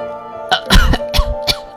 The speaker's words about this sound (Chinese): 虽然被月松开，金龙头还是艰难地咳嗽着，不过他的脸上却依然是微笑。